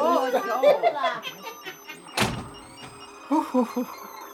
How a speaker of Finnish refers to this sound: Tämä niin sanottu morsia lähti ovet paukkuen niin kuin tulikin.